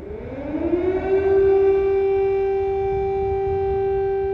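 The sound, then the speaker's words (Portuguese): An air raid siren wails at night, its tone rising steeply at the start and then holding a loud, steady sustained pitch with rich overtones. No voices are heard. “Na primeira noite, pouco depois das explicações da Olessa sobre quem seguir no Telegram para avaliar o risco do perigo que se corre e sobre o que ter na mochila caso seja preciso correr para o abrigo, as sirenes não demoraram a chegar.”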